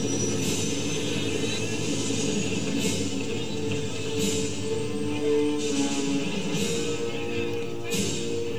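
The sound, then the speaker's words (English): A silver helicopter carrying federal agents lands on a street, its engine roaring loudly and steadily, the drone filling the scene, with recurring whooshing surges from the rotors. No one speaks. “feds rolling in in their fancy dancy silver chopper, just landing on the street, not giving a fuck about anybody.”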